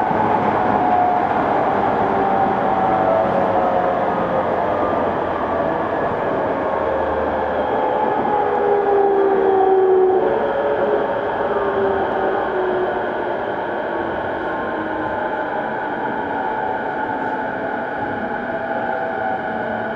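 A Tokyo Waterfront Area Rapid Transit (Rinkai Line) 70-000 series electric train running between Shin-Kiba and Tokyo Teleport, a steady, unbroken roar of wheels and motor with faint whining tones gliding slightly in pitch, no voices throughout.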